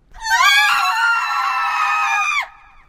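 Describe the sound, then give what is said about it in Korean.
A loud, shrill scream from a girl's voice, held steadily for about two seconds before cutting off abruptly, piercing, with no talking around it. The screams are from two girls in separate rooms, ringing through the Seonam dormitory late at night. “서남학사에 울려 퍼지던 비명소리는 두 사람의 것이었지만 이들은 서로 다른 방을 쓰고 있었다.”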